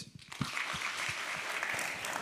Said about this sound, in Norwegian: Gi han en varm applaus.